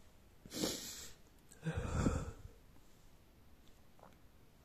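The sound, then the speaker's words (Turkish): A man sniffles and sobs: two heavy, wet, breathy snuffles about a second apart, followed by quiet, shaky breathing with no talking. “Belki ben diyeceksin böyle ağlayan erkek mi olur?”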